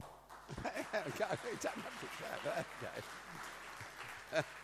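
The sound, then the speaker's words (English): Audience clapping, a steady soft patter of many hands that runs under a person talking and continues through the whole stretch at a moderate level. “You don't have to clap.”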